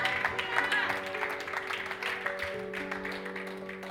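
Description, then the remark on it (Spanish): Steady applause from a crowd over sustained keyboard chords, a dense clatter of clapping that stays fairly loud for the whole few seconds, with some voices mixed in. “Alguien que diga, aleluya, con un fuerte aplauso.”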